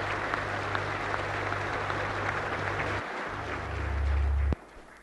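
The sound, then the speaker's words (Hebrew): Sustained, dense applause from a large crowd in the Israeli Knesset, with coalition and opposition members on their feet, a steady wash of many hands clapping with a low hum beneath, swelling slightly before cutting off abruptly near the end. “כולם על רגליהם, ומתאים כפיים, קואליציה, אופוזיציה, איזו היסטוריה, איזו היסטוריה.”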